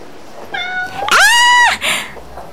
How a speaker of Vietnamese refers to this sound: anh có mèo hả ờ đúng rồi em con mèo này à, chủ nó mới gửi ở đây để về quê ăn tết